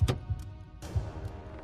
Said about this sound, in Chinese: 吱呀一声，卧室门被推开了。